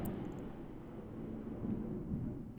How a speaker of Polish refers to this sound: Pogodę mamy bardzo ciekawą, właśnie piorun taki strzelił, że nie wiem, czy nawet na nagraniu nie będzie tego słychać. Zobaczymy. Ja nie słyszałem.